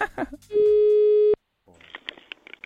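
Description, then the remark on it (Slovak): A brief burst of talk, then one loud, steady electronic telephone ringback tone lasting under a second while dialing a hotel in Paris, cutting off abruptly before voices resume. “Vytáčam ti hotel a tvojou úlohou je si objednať na dnes večer hotelovú izbu.”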